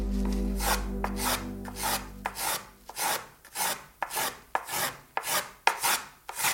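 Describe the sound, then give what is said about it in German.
A hand tool rasps across spruce wood in steady, repeated strokes, about a dozen scratchy passes in a regular rhythm, with a low hum underneath during the first couple of seconds. “Ich muss eigentlich das Geräusch des Werkzeugs hören, um das Holz zu begreifen.”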